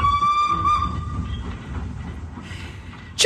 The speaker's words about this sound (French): Tchou, c'est le train.